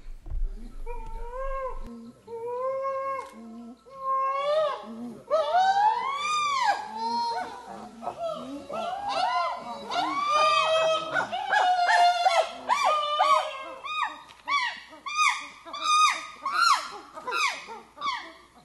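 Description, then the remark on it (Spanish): Gorillas in Uganda vocalize in a busy, overlapping chorus of wavering, whimpering and hooting calls that rise and fall in pitch, starting sparse and growing denser and steadily loud after a few seconds. “Vamos a escuchar a estos gorilas en Uganda.”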